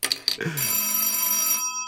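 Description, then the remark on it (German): A telephone rings with an incoming call at Figarino's bicycle shop (Figarinos Fahrradladen): two quick bright clicks, then a steady, shrill, buzzing ring that holds for about a second before stopping. “Du hast eine gute Chance, es herauszufinden, indem du den Anruf annimmst, mein Freund.”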